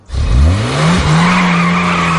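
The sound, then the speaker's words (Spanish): A car engine revs up sharply with a rising whine, then holds a loud, steady roar as tires squeal and the vehicle speeds off. No voices. “El coche acelera y se va, en el salón.”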